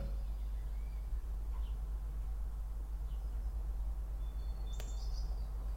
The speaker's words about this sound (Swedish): Jag hoppas att alla hör att det är lite fågelkvitter i bakgrunden. Det är väldigt fint. Ska vi vara tysta i tre sekunder?